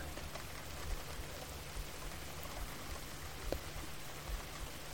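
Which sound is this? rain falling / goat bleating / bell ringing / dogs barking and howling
rain falling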